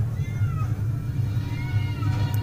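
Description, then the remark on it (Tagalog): A cat yowls in drawn-out, wavering cries that rise and fall, moderately loud, over a steady low rumble that runs through the whole stretch, with no voices. “mga boses nila at sila ay nagaan yung pusa. Rinig na rinig ang kanilang pag-atungal.”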